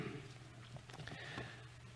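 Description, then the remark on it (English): Soft papery rustling of Bible pages being turned, a few brief crinkly flicks clustered together, faint over a low steady hum, with no one speaking. “And in the proportion, I hear pages turning.”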